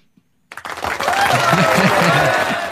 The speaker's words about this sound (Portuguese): É tem aquele aplausinho ali. Ah, ah, ah, aí, aí, aí, aí, merece, né?